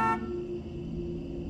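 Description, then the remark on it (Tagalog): A car horn blares loudly at the start, at night, its bright honk cutting off quickly while a lower tone and a steady engine rumble carry on underneath. “Nang nasa gitna kami ng pagkanta ay biglang bumusina yung kotse ni Papa.”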